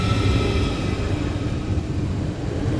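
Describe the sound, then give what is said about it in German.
A newer ICE high-speed train rushes through a station in a steady, loud roar with a deep rumble underneath and faint whining tones above. It is continuous for the whole stretch, with no voices. “Mhm muss sagen, das scheint auch wirklich ein neuerer ICE zu sein.”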